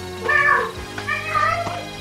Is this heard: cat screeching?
yes